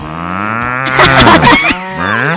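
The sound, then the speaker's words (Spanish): A cow moos once in a long, drawn-out call that swells louder in the middle before tapering off, clear with no talking. “¡Qué bacota!”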